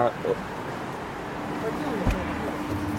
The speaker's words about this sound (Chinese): 呃，现在大家可以听到我们打开门儿，然后外面的声音。